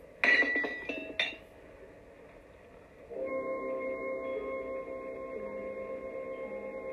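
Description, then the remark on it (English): A glass is knocked over with a few sharp clinks and knocks in quick succession, then a steady liquid pouring or splashing sound follows for several seconds as the drink spills, with no talking. “Forgive me, that was clumsy of me. I uh, hope I didn't get any on you,”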